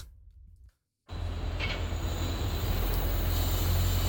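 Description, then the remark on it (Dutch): After a brief silence, a Wuppertal suspension railway train (Schwebebahn), which runs between Vohwinkel and Oberbarmen, rolls past at Oberbarmen station with a steady, loud mechanical rumble and hiss that keeps building slightly, with a faint high squeal or two. No one speaks. “Kijk, daar gaat het eh, mechaniek.”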